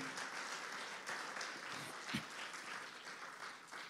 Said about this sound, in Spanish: Gloria a Dios, aleluya. Le damos un aplauso al Señor, amén. Aleluya.